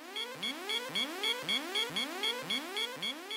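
An electronic alarm sounds alone, a rapid series of rising, whooping tones repeating about twice a second at a steady, fairly loud level, like an alert siren.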